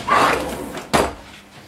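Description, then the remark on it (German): A kitchen drawer slides open with a long scraping rumble, then a sharp knock as it stops, followed by a brief rattle of its contents as someone searches inside. “Ja, der muss, glaube ich, in der Schublade sein.”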